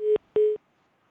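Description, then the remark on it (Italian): Two steady electronic tones of an incoming phone call, each lasting about a fifth of a second with a short gap between, clear with no voices. “Eh, altra telefonata, pronto chi è là?”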